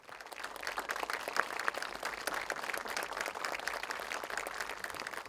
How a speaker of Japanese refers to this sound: 皆様大きな拍手でお迎えくださいませ